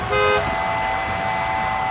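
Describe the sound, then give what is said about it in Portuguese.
A single short, loud car horn blast near the start, bright, followed by a fainter lingering steady tone under traffic-like background noise. “Toma lá a buzina.”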